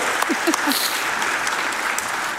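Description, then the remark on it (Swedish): An audience claps steadily, a dense, even wash of applause with a few sharper individual claps early on, holding at a fairly constant level throughout. “En applåd.”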